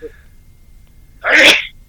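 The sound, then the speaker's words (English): A single sharp, loud sneeze bursts out after a quiet pause, with its broad hissy blast fading quickly. “bless you, sir.”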